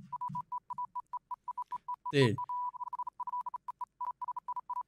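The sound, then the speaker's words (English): Rapid, uneven bursts of a single steady electronic beep from a button being jitter-clicked over and over run throughout. A man briefly exclaims partway through. “You can jitter jitter click the button.”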